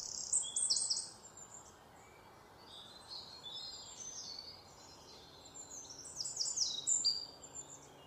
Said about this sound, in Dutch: Hij sloot zijn ogen en luisterde naar het geluid van de vogels die zich klaarmaakten om te gaan slapen.